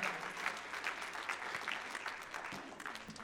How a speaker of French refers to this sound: Une bonne main d'applaudissement pour les boys avec moi sur la scène.